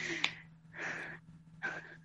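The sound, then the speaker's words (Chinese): Three heavy, breathy pants in an uneven rhythm, each a loud hissing rush of air, with short pauses between them and a faint steady hum underneath; no talking. “你能不能别在这喘气儿？”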